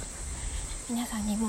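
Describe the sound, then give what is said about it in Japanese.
Cicadas and higurashi evening cicadas drone in a steady, high-pitched, unbroken chorus throughout, moderately loud and outdoors-sounding, heard while a person walks, whose voice starts to speak over it partway through. “今日はちょっと歩きながらお届けしたいと思いますセミの声や日暮らしの声が”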